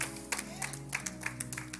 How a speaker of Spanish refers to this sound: No, si le va a aplaudir, apláudale bien porque tiene que ser bueno.